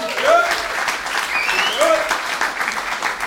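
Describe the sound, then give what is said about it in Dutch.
Steady audience applause, a dense rush of many hands clapping at an even loudness for the full stretch, with a few brief whoops or cheers rising above it. “Dankjewel, geef Pieter ook nog even een applaus.”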